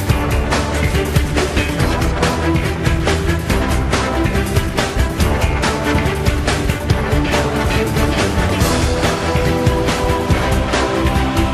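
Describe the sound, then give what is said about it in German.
Sweeping, dramatic orchestral-style music from a Norwegian advert plays loudly and continuously, with a full, dense sound and a steady driving pulse throughout, no voices over it. “Ah, mit reißender Musik.”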